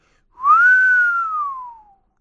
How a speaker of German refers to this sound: Dinominal! ruft Matteo, klatscht in die Hände und pfeift vor Begeisterung.